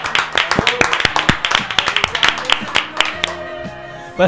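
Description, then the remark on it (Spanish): Audience applause: a dense, fairly loud patter of overlapping sharp claps for about three seconds, then tapering off as a few last claps fade under steady tones and murmuring voices. “¿Hay que aplaudir? Sí. Aplaudan, aplausos.”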